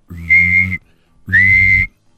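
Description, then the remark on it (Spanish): Two loud, shrill whistle blasts, each lasting under a second, separated by a short pause. The tone holds steady with a slightly breathy edge, with no talking. “llegó un barco donde llegaban con un silbato, con un silbato y decían,”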